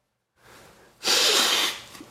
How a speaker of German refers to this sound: Jetzt schneuzen.